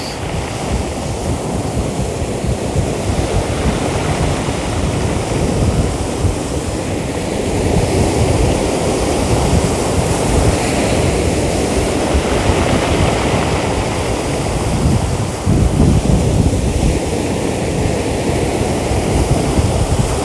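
Strong wind roars and buffets the microphone while waves crash and wash steadily onto a beach with tents, on a sunny, not cold day, a continuous loud rush of surf and gusts with no one speaking.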